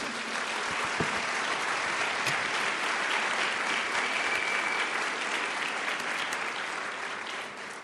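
An audience applauds steadily for several seconds, a dense, even wash of many hands clapping that holds its loudness before easing slightly toward the end, with no speech over it.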